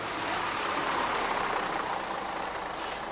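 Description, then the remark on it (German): A bus drives steadily with a continuous engine rumble and broad road noise, holding a constant loudness throughout with no talking. “Neben dem Auto besteht natürlich auch die Möglichkeit, gut per Bus, Nahverkehrszug oder Stadtbahn durch den Teutoburger Wald zu kommen.”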